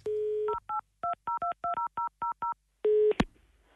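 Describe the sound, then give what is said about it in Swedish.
A steady telephone dial tone gives way to a quick run of about ten paired-pitch touch-tone beeps as a number is dialed to call Skansen, then another brief steady tone and a sharp click, with no voices. “och hör och häpna, han ringer tydligen Skansen.”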